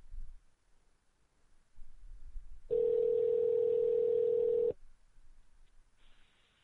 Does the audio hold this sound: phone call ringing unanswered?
yes